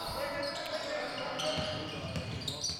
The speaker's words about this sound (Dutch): Maar niet alleen de voetbalstadions waren leeg, natuurlijk ook hier in de versluisdom piepen de schoenen net iets luider dan anders.